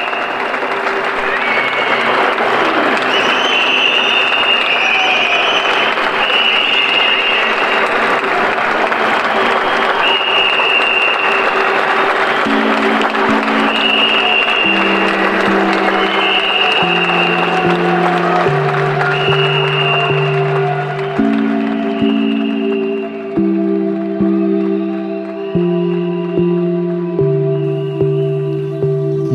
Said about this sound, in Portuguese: vão às janelas para aplaudirem os profissionais de saúde e todos os demais que estão aí nos trabalhos essenciais para garantirem que quem está em casa tenha a melhor condição possível diante desse momento. Um aplauso a todos e grande abraço.